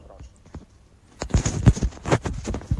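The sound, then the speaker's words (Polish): Muffled bumps and rustling as a phone is passed from hand to hand between people, quiet at first, then a burst of irregular knocks and scrapes against the microphone. “O, państwo przekazują sobie chyba telefon, tak.”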